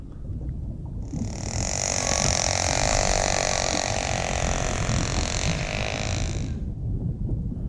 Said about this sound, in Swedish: Det är en späckhuggare!